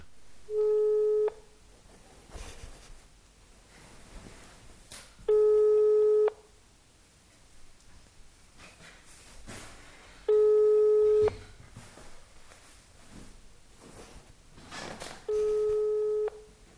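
A telephone ringback tone sounds four times, each a steady one-second electronic beep separated by roughly four seconds of quiet line hiss, clear and fairly loud as if heard through a phone.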